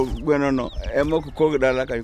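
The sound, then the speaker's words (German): A rooster calls in three loud, drawn-out bursts, each a strained, throaty cry with short pauses between them. “Der Vater gibt dem Sohn eine Panga mit, auch ein Symbol dafür, dass der sich jetzt selbst etwas aufbaut. Und einen Hahn.”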